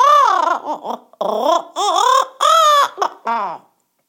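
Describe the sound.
A voice imitates a crow in a story practicing singing, going 'Grrr, grrr': a run of strained, croaky, wavering bursts, loud, with short gaps between them.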